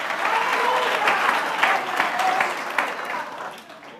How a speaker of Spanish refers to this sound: ¿Cuánto da un aplauso al Señor? Aleluya.